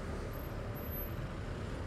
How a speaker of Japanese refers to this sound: 砂ぼこりまみれの町近代的とは決して言えないレンガ造りの低層の家々舗装もろくにされていない道路にジープのような軍用車が荒っぽい運転で駆け抜ける